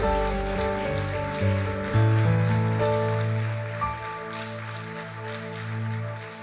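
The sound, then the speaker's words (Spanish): An audience claps steadily in applause for the king, a dense crackling roar of many hands, layered over sustained keyboard chords that hold and shift beneath it. “oh, vamos, dale fuerte el aplauso al rey.”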